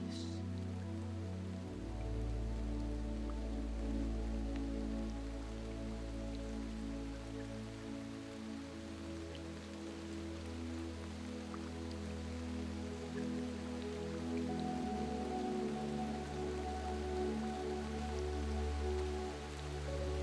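Steady rain patters on a surface in a continuous, even wash of sound, accompanied by a soft, sustained low musical drone with no voices.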